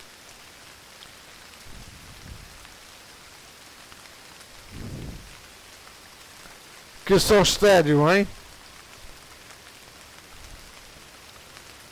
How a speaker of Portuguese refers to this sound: iniciar chuva